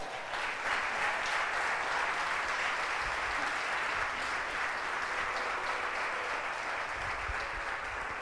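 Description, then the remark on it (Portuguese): An audience applauds the Lord during a church sermon, clapping steadily for several seconds, a dense, even wash of clapping from many hands without pause. “Aleluia, aplauda ao Senhor.”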